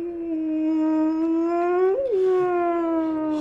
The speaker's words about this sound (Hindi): बाहर कुत्ते के रोने की आवाज आ रही है